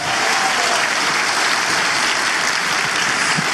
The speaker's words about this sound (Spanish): Vamos, denle fuerte ese aplauso al Señor. Vamos.